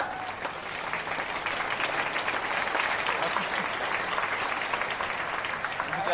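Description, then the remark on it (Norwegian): Sustained audience applause, a dense wash of many hands clapping at steady volume for several seconds, with faint voices mixed into the crowd noise; the applause was started by politician Snorre Valen of SV on a Norwegian talk show. “Nå vil jeg surfe på applausen som Snorre startet.”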